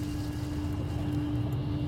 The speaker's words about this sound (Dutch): Ehm, en we horen ehm, het fontein.